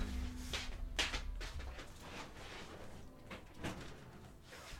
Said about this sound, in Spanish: Tengo que cerrar la puerta de un momentito. Ahí está.